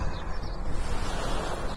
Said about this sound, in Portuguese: Ouçam estas ondas.